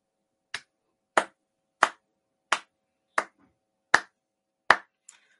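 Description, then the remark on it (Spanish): A man claps for himself slowly and steadily, about seven sharp, crisp claps evenly spaced, with a faint softer tap at the end. No voices accompany them. “De hecho, él se aplaude a sí mismo”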